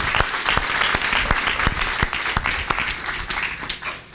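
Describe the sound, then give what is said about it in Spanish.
An audience breaks into loud, sustained applause, with dense overlapping claps and a few sharper individual ones, holding steady for about four seconds before dipping briefly near the end. “Entonces déle ese fuerte aplauso.”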